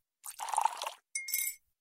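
A short splash of milk, just a dash, being poured into freshly made tea after the kettle has boiled, followed by a bright ringing clink of a mug, two brief bursts of sound with no talking.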